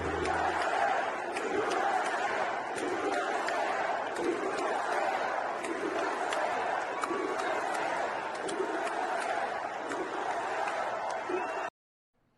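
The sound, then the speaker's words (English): A large crowd at a Donald Trump rally in the 10,000-seat Mohegan Sun Arena in Wilkes-Barre, Pennsylvania, roars and cheers continuously: a dense wash of shouting voices with occasional sharp whoops, holding steady for about twelve seconds before cutting off abruptly. “This is what Trump's crowd looked like.”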